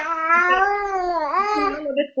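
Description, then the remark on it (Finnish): A ten-month-old baby babbles in a long, drawn-out vocal sound whose pitch wavers up and down, clear, then breaks off and ends with a short extra burst. “Tota, niin, niin, se on ihan hauska, kun kuuluu tämmöistä kommentointia tuota ta- taustalta.”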